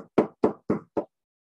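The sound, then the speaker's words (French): Five firm knocks in a quick, even rhythm, knuckles rapping on a wooden door, moderately loud, with no talking and silence once they stop; a demonstration of someone knocking at a door. “Et Ravenfeld, il frappe à la porte”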